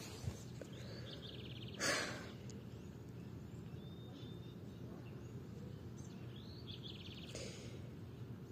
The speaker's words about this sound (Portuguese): E é assim que eu me curo, falando colocando para fora do universo, cantando com os pássaros, ouvindo, me inspirando por eles e falando por mim.